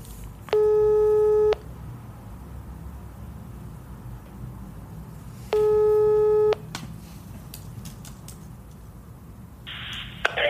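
A telephone ringback tone sounds while a call is placed: two steady, buzzy one-second tones about four seconds apart, clear and fairly loud over a low background hiss.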